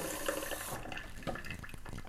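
Hot water runs from a tap into a kitchen sink while coffee is being made, a steady rush that cuts off partway through, followed by a few soft splashes and drips.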